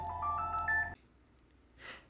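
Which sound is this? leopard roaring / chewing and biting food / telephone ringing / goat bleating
telephone ringing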